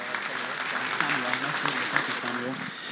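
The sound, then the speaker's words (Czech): Steady, dense audience applause for volunteers fills the whole stretch at an even loudness, while a voice talks over the clapping throughout. “can I please have a round of applause for our volunteers?”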